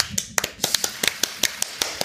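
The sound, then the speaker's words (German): A short burst of light, scattered clapping from one or two people, a dozen or so crisp claps at an uneven rhythm over about two seconds, fairly quiet. “Dafür erstmal einen kleinen Applaus.”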